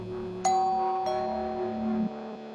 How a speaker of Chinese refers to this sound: 就在镜子再次呢喃时，门铃响了。